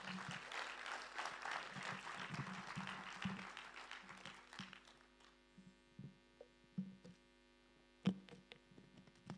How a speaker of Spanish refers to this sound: Un aplauso, por favor